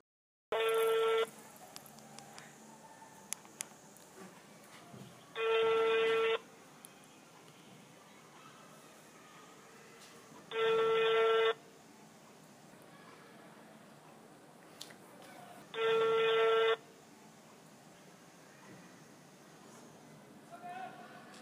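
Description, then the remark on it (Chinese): A call to a stolen mobile phone rings unanswered after the thief stopped answering: four steady mid-pitched ringback tones, each about a second long, repeat every five seconds over a low, constant background hiss. “音频五：无应答。”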